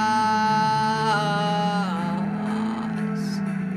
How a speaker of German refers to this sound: Und jetzt geben wir Gas,